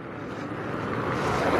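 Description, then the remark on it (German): A car approaches along a cobblestone street lined by high walls on both sides, its tires producing a rough, rumbling roar that swells steadily louder over a couple of seconds. “Okay, wieder ein Auto.”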